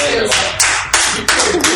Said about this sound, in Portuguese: Cara, uma salva de palmas